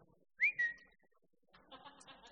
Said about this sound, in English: And so every time I'd whistle, you know, it opened its mouth, rah, rah, and ready to eat.